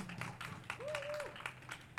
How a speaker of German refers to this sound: das habe ich auch noch nie bekommen. Applaus dafür, dass ich die Auflagen einer Demo verkünde.